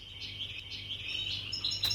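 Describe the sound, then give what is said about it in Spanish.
Birds chirp and sing continuously on a sunny day as summer approaches, a bright layered chorus of high tweets with some sharper calls near the end, over a low steady hum, moderately quiet and with no talking. “Era un día soleado. Los pájaros cantaban y el verano se acercaba.”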